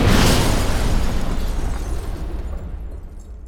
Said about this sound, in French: Les dynamites dans les westerns. Les voitures qui explosent dans les James Bond. Les lance-roquettes dans les jeux vidéo comme Fortnite. Notre environnement sonore nous a habitués aux déflagrations faramineuses depuis notre enfance.